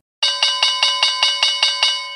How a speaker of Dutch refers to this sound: Daar klinkt die heerlijke bel weer van de rondvraag.